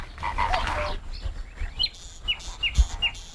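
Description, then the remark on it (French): A zitting cisticola, a tiny bird, gives sharp, high 'chip' notes in flight, four or five evenly spaced calls over a low, noisy outdoor background that may include croaking frogs. “En fait, c'est la cysticole des gens, qui est un tout petit oiseau qui chante en, volant.”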